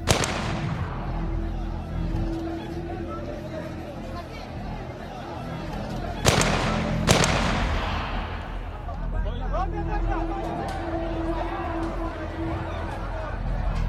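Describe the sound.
Two sharp, cracking gunshots from a sniper firing at an Afghan security guard at the North Gate ring out about a second apart, standing out above a steady background of murmuring voices and ambient noise.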